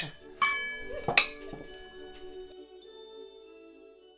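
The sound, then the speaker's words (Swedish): Glasses clink together as friends toast, several bright strikes in quick succession, each leaving a high ringing tone that slowly fades into quiet. “Vi måste skåla för detta mina vänner. Skål! igen! Skål! Skål.”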